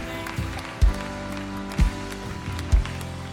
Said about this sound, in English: Can we just clap our hands and thank Him? Come on, He is worthy of our praise.